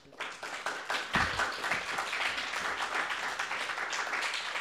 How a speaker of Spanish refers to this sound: Aplausos.